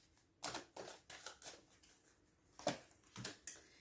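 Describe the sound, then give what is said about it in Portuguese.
Tarot cards are drawn and laid down one after another, one card to one side and one to the other, from different decks: a quick, irregular series of soft papery slaps and flicks, quiet, with no talking. “Vamos então lançar aqui uma carta para um lado, uma carta para o outro.”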